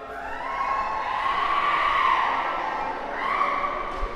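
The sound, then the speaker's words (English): A loud crowd of adults chanting "the zoo" together inside a metro carriage, a sustained swell of voices with an echo that rises, dips briefly, then surges again amid the rumble of the train. “yeah, that was actual grown-up human beings doing the zoo quite loudly in the metro.”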